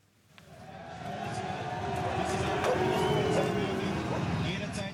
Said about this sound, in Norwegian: Schæferhunder bjeffer, militærhelikoptre brøler like over bakken, og hundrevis av østerrikske politifolk med hjelm og køller løper i flokk for å forsvare landets grenser.